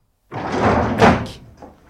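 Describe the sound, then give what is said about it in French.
A train carriage door bangs shut violently, a sudden heavy slam with a rattling, rumbling clatter that lingers briefly before fading out. “La porte du wagon bat violemment.”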